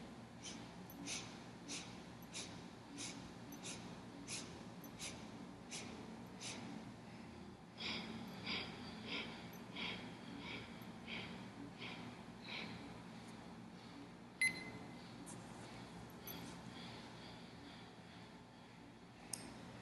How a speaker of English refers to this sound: Break your inhale into eight sniffs, eight small parts, and exhale in eight small parts as well. And begin.